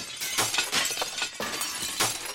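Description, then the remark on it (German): Glass shards breaking and clinking in a rapid series of bright, high crashes, one tumbling after another with no pause, moderately loud with no voices, performed as the second movement, an adagio of a thousand glass shards, of a rubbish symphony. “Zweiter Satz, ein Adagio der tausend Glasscherben.”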